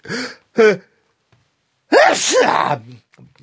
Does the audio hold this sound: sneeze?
yes